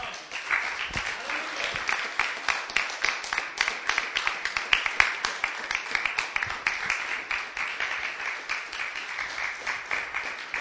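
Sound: audience applauding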